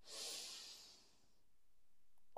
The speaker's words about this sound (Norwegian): Vi gjør det én siste gang. Pust godt inn med nesa, og hold pusten.